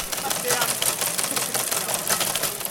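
An old teleprinter, hooked up to receive SMS text messages, clatters steadily as it prints one out at a congress, its rapid mechanical strikes forming a dense, continuous rattle with a faint hum underneath. No one speaks.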